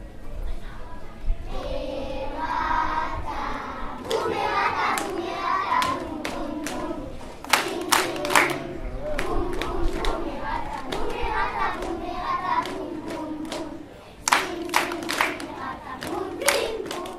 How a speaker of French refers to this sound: il y a plein de monde qui est en train, qui est en train de sortir du hall